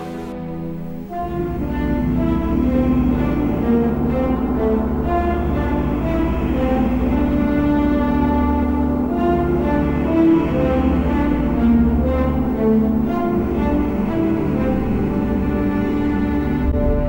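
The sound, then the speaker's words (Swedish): A sustained orchestral film-score passage from an expanded triple-CD soundtrack edition, not on the regular soundtrack: low, rich chords held at a steady volume for about seventeen seconds, with faint higher notes drifting in the background and no voices. “hör man några små toner i bakgrunden från det expanderade soundtracket”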